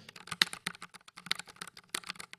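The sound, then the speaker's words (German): Rapid, uneven keystrokes clatter crisply on a computer keyboard, with a few louder clacks standing out in the flurry of typing. No voices. “das ist halt eine Tastatur. Man kann sich jetzt so sagen, ja, okay, Tastatur ist Tastatur. Aber ich finde, es macht einfach Spaß, darauf zu tippen.”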